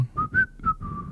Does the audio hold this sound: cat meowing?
no